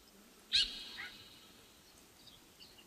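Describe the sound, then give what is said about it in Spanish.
A thrush sings two bright, high chirps close together, the first loud and sharp, followed by fainter notes over a soft background hiss. “Bueno, el sonido de un, pajarito, de un sorsal Un sorsal, probablemente, claro.”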